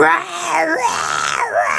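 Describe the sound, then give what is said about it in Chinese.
A voice imitates the angry roaring of a middle-aged man heard from the fourth floor of an apartment building: a continuous, strained, wailing shout lasting under two seconds, loud and harsh, with the pitch swooping up and down and no clear words. “有时候我放假就休假在家的时候，就大概过了不知道第几个礼拜开始，我就听见四楼每次都会有一个中年男子在咆哮的声音，他就讲。”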